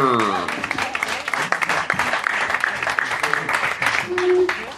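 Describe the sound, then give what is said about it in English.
An audience applauds steadily as guests walk to the microphone, a dense wash of many hands clapping at a fairly loud, even level throughout, with a few indistinct voices and cheers mixed into the noise. “You clap for these motherfuckers till they get to that mic.”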